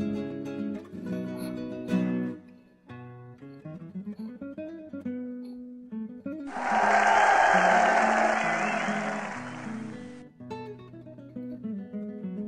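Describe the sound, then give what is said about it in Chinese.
An audience at a live event breaks into applause, a dense wash of clapping that rises suddenly, holds steady for about four seconds, then cuts off, layered over a steady, low tonal backdrop. “提问人笑出声，现场掌声。”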